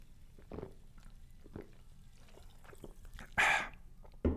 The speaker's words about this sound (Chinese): 我们还是要在开始之前呢，用气泡水来嘎大家来干几杯哦，干几杯哦。